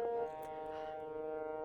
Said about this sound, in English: Oops, folks, I don't know if you can hear the siren going off in the background, but please rest assured that it is simply a drill of some kind.